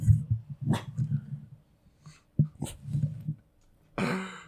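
dog barking

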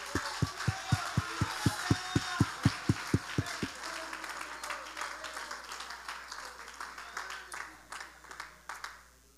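audience clapping hands

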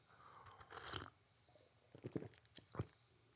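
sipping coffee

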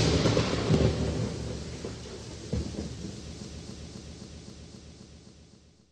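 rain with thunder

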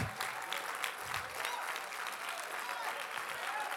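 audience clapping hands

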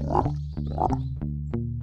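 frog croaking

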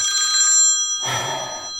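telephone ringing

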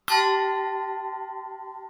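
bell ringing

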